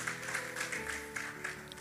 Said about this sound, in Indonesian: Tepuk tangan bagi Tuhan Yesus.